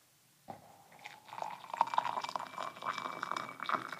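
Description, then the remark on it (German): Water is poured into a glass in one steady, splashy stream that starts abruptly and runs for about three and a half seconds, fairly loud, with no talking. “Und ähm, ich gieße jetzt einfach Wasser in die Gläser und dann sagst du mir danach, welches welches war.”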